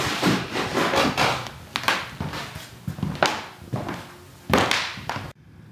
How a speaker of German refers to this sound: Aber erst stehen wir auf und hören uns diesen uralten Fußboden noch mal an, der so schön knarzt.